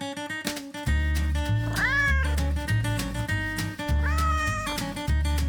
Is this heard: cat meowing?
yes